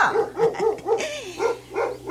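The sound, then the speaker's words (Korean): The pet dog Huindungi barks at someone arriving at the house, a steady run of about six or seven sharp, evenly spaced barks, fairly loud, with no voices in between. “아 우리 흰둥이 저렇게 지저대는 거 보면 모르요.”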